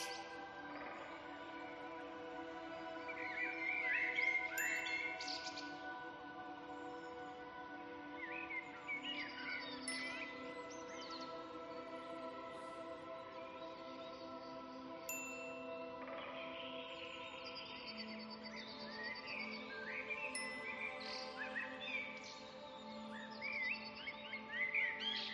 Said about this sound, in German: Hörst du, wie die Vögel miteinander in Kontakt sind? In welchen Frequenzen und Variationen sie singen und sich mitteilen?